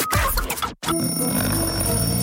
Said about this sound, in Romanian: A sunat ceasul.